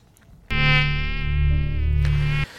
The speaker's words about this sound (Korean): 이게 무슨 소리냐면요. 모기 소리예요. 예, 요즘에 저 모기가 바깥이 추우니까 안으로 안으로 자꾸 들어옵니다. 그래서 모기 물리는 분들이 많은, 많은데 다시 한번 들려드립니다. 예, 모기 소리예요.